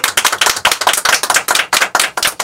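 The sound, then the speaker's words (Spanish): A crowd applauds on the show Viva la Mañana, many hands clapping in a dense, overlapping patter that stays loud and steady for a few seconds, with no voices. “Eso es verdad, un aplauso.”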